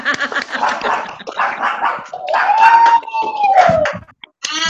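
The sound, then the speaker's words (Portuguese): A dog barks in a rapid string of loud yaps, breaking into a long rising-and-falling whine before a final sharp bark. “Meu cachorro late. O cachorro late.”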